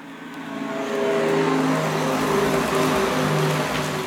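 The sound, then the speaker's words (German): A Renault Zoe's electric pedestrian warning sound, switched on, which plays at speeds up to 30 km/h: a steady, synthetic hum of layered tones whose pitches shift slightly, over a constant hiss. It plays continuously for about four seconds with no talking. “So hört sich eine Renault Zoe an, wenn man es eingeschaltet hat.”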